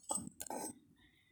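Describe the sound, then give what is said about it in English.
A coffee cup clinks softly, with a couple of brief breathy sipping sounds and a faint, high ringing tone that lingers afterward. Everything is quiet, and no one talks. “so I'm just gonna take a sip from my coffee because my throat is getting like dried up.”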